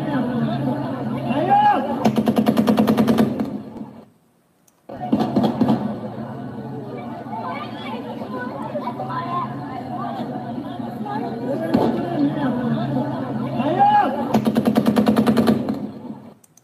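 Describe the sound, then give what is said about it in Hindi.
Two bursts of rapid gunfire fired into the air, each lasting about a second, ring out over a noisy crowd of fleeing people talking and shouting throughout, with an American Humvee standing by. “सुबह भी कोई फ़र्क नहीं आया अमेरिका की हमवीज़ खड़ी हुई है एज इट इज़ और लोग भाग रहे हैं और हवाई फायर की आवाज़ भी सुनाई देगी”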